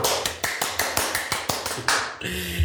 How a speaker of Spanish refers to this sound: Un aplauso, por favor.